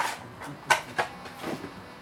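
A shovel digs and scrapes through soil nearby, with a few sharp gritty scrapes and thuds spaced irregularly against a quiet outdoor background.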